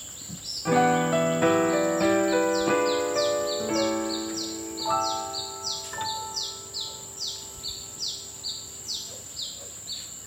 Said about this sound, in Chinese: 哇，好美的鸟叫声啊！